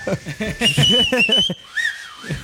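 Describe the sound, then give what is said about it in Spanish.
A person whistles a thin, wavering tone over a burst of voiced, laugh-like sounds, then follows with a short solo whistle that slides up and back down. “¿No sabes chiflar?”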